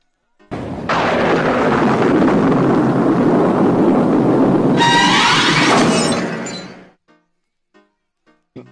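A loud, sustained crack and roll of thunder bursts in suddenly, rumbling heavily for several seconds with a harsher crackling surge near the end before fading to a few faint knocks.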